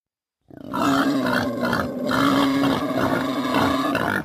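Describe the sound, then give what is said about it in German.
A wild boar grunts and snorts loudly at night on a street in Berlin, a rough, throaty stream of calls that carries on for about four seconds with no one talking. “Wildschweine, sogar mittlerweile richtig viele wohnen schon in Berlin.”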